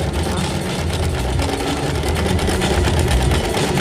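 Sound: sewing machine running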